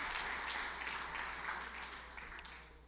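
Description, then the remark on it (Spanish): A church audience applauds the Lord for his word, steadily for about three seconds, a dense wash of clapping that fades slightly toward the end, with a low steady hum underneath and faint voices mixed in. “¿Por qué no le damos un aplauso al Señor por su palabra?”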